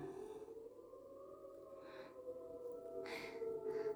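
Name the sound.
ambulance siren passing by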